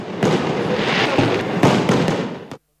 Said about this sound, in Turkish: Programın sona ermesinin ardından Boğaz'da havai fişek gösterisi yapıldı.